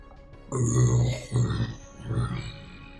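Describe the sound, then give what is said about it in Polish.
A voice imitates a low, rumbling growl in three drawn-out bursts, fairly loud, with brief pauses between them and no other talking. “i słyszysz za plecami warkot.”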